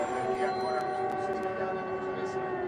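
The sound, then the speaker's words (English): Air raid sirens wail in a steady, sustained drone with layered tones, loud and continuous throughout, with faint background noise underneath. “Now, those are the real air raid sirens.”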